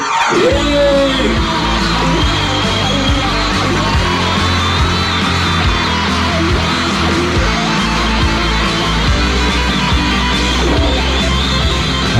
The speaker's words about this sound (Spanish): Les pido un fuerte aplauso, una felicitación para Radio El Aguantadero.